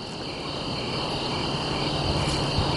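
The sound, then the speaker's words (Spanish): Loud, dense cricket chirping outdoors at night in a very dark place fills the whole stretch, a steady high-pitched trilling with persistent bright bands and no pauses, with no voices over it. “Los grillos se oían muy alto.”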